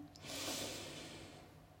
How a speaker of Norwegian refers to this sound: Leppene gjerne lukka hvis du får til å puste gjennom nesa. Ta et dypt innpust og et sakte utpust. Og en gang til puste godt inn.